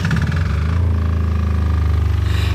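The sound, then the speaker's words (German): A small generator engine, housed in an oven-sized, all-silver box, sputters into life as it is switched on and settles into a loud, steady low rumble, its pulsing chug continuing without any voices. “Wir schalten das Gerät ein. Es fängt an zu rumpeln.”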